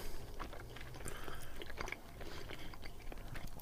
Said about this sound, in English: crunchy because of all the tiny, tiny sesame seeds. Mm-hmm. But a bit melt in your mouth at the same time. Like you could sit and contemplate chewing on this for a while.